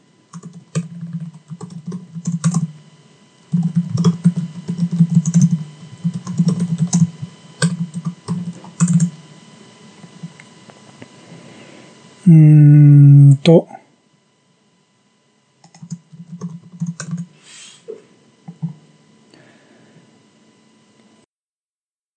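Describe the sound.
Rapid typing on a computer keyboard while doing a web search: bursts of crisp key clicks that pause and resume, with a person talking over parts of it.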